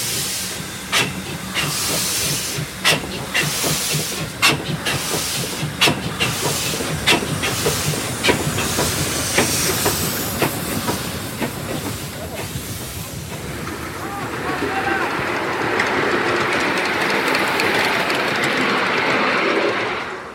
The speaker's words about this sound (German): So klingt die Modelleisenbahn, ähm, denn wir sind in Granestein im Eisenbahnmuseum, genau.